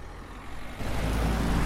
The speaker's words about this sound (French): Euh, au péage, à la sortie du péage. Donc une voiture et un poids lourd qui approche.